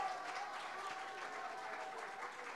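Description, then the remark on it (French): A steady burst of audience applause for the students of the Lycée Jean Massé, dense overlapping clapping that holds at an even level for a couple of seconds with no voices on top. “Les lycéens du lycée Jean Massé. On peut les applaudir également.”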